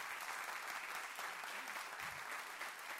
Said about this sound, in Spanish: Dan un aplauso al Señor.